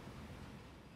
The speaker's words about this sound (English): That if you're wondering what that sound is, that will be the the, the rain hammering hammering down outside.